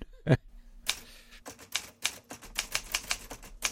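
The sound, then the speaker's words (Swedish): Rapid typewriter keystrokes clatter in an uneven rhythm, each strike crisp, preceded by a brief low thump at the start. “ja, en skrivmaskin, ropar, ropar någon.”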